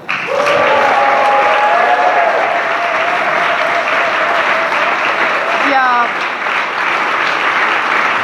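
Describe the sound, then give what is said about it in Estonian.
A group of people claps steadily for around eight seconds, a dense, loud patter of applause for themselves as a team, with a few voices calling out over it. “suur-suur aitäh kõigile ja teeme endale ka aplausi!”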